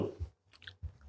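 Wet chewing of a crunchy mouthful of toast, with a few soft crackly bites and muffled low thumps from the jaw, quiet and brief with no talking.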